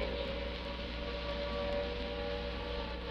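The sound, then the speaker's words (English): Air raid sirens wail continuously in Trafalgar Square, by the steps of St. Martin's in the Fields, a sustained steady tone hanging over a broad wash of background noise, with no pauses and no voices. “This is Trafalgar Square, noise that you hear at the moment is the sound of the air raid sirens.”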